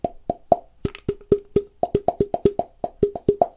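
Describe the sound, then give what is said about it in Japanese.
Rhythmic hollow plopping taps on two hand-held tubes cut from washed juice or beer aluminum cans, alternating between two distinct pitches set by the different tube lengths, in a quick, bouncy pattern, clear with no talking. “今2本手に持ってやってるんですけども、まあ、ポコポコ結構可愛らしい音が聞こえたかなと思います。”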